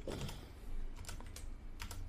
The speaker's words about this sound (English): Uh, that sixty percent keyboard. I'm fucking up over here. Technical difficulty.